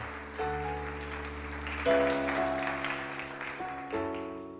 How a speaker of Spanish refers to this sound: Dale un aplauso lleno de alegría al Señor en esta hora.